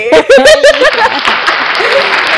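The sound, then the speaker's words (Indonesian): A canned applause sound effect played from a soundboard on new recording equipment: a burst of hearty laughter opens it, then a steady crowd of clapping hands fills the rest, loud and continuous. “Tepuk tangan lagi.”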